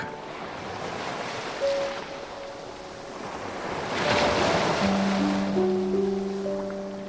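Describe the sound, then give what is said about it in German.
Gentle ocean waves wash steadily onto a beach, the hiss of surf swelling louder midway and easing back, with soft sustained musical tones humming faintly underneath. No one speaks. “Du hörst das Rauschen der ruhigen Wellen und ihre stete Bewegung.”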